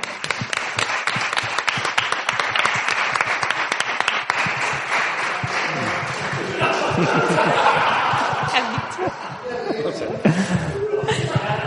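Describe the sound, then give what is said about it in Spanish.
An audience breaks into sustained applause for two volunteers, dense rapid clapping filling the first half, then softer scattered claps mixed with murmuring voices and a bit of laughter as it tapers off. “Un aplauso para mis voluntarios, ¿no?”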